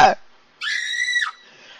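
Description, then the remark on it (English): A short clipped vocal sound, then a woman lets out a single loud, high-pitched scream of frustration that holds steady for under a second before breaking off and fading. “And um, we have to pull our hair out and scream.”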